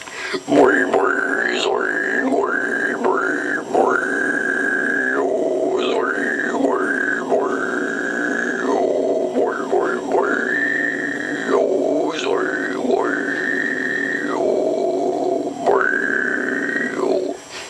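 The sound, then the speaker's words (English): A person imitates a pig with a long run of loud, high, drawn-out squeals, each rising sharply and holding a shrill pitch before dropping off, repeated in quick succession with grunty breaks between. “my last pig squealing video sucked, so I'm gonna be doing a redo, okay?”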